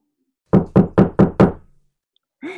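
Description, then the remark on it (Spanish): Five loud, evenly spaced knocks on a door ring out in quick succession late at night, past midnight, each with a solid, resonant thud. After a brief pause a short voice is heard. “¿Que alguien toca la puerta a estas horas?”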